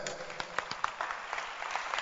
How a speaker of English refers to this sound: Clap again for this girl.